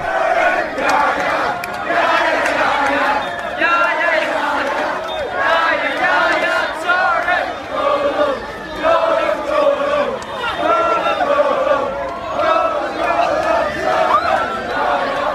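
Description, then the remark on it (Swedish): A crowd of students in Newcastle loudly sings a spontaneous, rhythmic, repetitive tribute chant to the footballer brothers Yaya and Kolo Touré together in the street, the melody rising and falling steadily for the whole stretch with no pauses. “Men det där var alltså eh, studenter i Newcastle som stämde upp i hyllningssången till bröderna Toré, Jaja och Kolo.”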